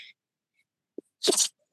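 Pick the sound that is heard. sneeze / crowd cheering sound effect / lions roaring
sneeze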